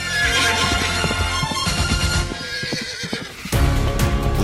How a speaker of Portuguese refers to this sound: Ali daquele lado é a Suíça e aqui nesta zona fronteiriça há muitos cavalos, muitos picadeiros.